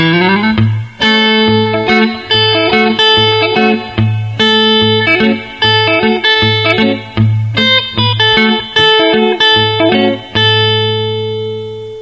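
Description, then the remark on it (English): A loud, distorted electric guitar plays a riff in the A position on its own, sliding up to the 7th fret with the third finger on the D string, with a steadily repeated low note pulsing under ringing, sustained higher notes, and no talking. “This starts off, this is for A, the A position, and we start off by sliding up to the 7th fret with our third finger on the D string.”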